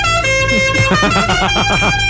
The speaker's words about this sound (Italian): Ma il clacson.